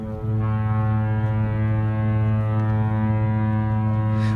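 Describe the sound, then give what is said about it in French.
A deep, powerful cruise ship's horn blasts in one long continuous note, loud, holding steady for several seconds with rich low harmonics and no speech. “le retour des bateaux de croisière, hein.”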